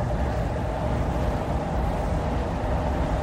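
A steady, loud low rumble from a passing train fills the whole stretch, with a broad roaring hiss over the top and no clear change in level; no one speaks.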